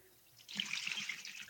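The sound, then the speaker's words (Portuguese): A stream of urine trickles and splashes in a steady, hissing rush for about a second, ending with a brief louder burst of noise. “Então, uma mijada aí é assim, ô que você vai fazer cocô pra, pra finalizar aí legal com a cara do.”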